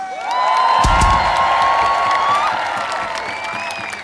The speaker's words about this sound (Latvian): Un eh, noteikti pievienojos šai, šai lielai komandai, kas šodien apsveic Latvijas izlasi. Vēlreiz uzsveram troksni priekš Latvijas izlases!